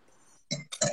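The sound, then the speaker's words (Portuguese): Two bright clinks of wine glasses against each other in a toast, a moment apart, each ringing briefly after a soft quiet lead-in, with no voices. “Vamos fazer o nosso brinde, então.”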